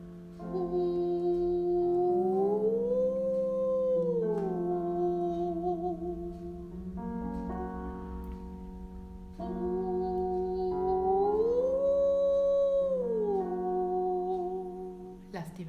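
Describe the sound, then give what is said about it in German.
A sustained singing voice slides smoothly upward in a continuous glissando, then glides back down; the rising and falling sweep happens twice, clear, with held notes in between. “Denk dran, nach oben leiser werden, gut supporten. dichtes Glissando, nicht hüpfen, schön schmieren.”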